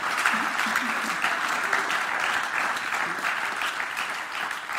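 Sustained applause from an audience for the small-group leaders, a dense steady wash of clapping hands at even loudness throughout, with faint voices mixed in beneath it.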